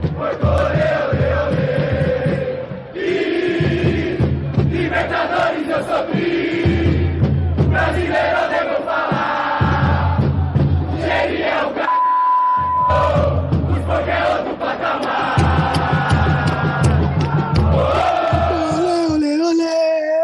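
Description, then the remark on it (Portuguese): A large crowd of football fans chants a song in unison outside a stadium in Uruguay, loud and rhythmic with repeated phrases and deep drum-like thumps, sustained for the whole stretch; the organized supporters group Mancha Verde is teaching the crowd the song. “E eu tava no Uruguai e saindo do Uruguai, ao, ao, do lado de fora do estádio, a torcida já começou a cantar essa música, né?”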